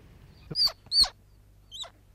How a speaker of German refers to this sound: Hier hören Sie jetzt den Notruf eines jungen Eichhörnchens, das wir aus dem Nest von seiner Mutter weggenommen haben und das jetzt um Hilfe schreit. Auf diesen Ruf reagiert die Mutter natürlich.